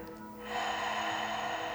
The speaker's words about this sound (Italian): Inspira dal naso. Espira dalla bocca.